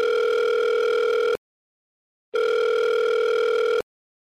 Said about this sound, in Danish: Med smårystende hænder taster jeg det oplyste telefonnummer ind på min mobil og ringer op.